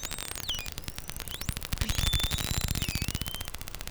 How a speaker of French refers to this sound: ce ne sont pas que des interférences. Vous écoutez des globicéphales, aussi appelés dauphins pilotes.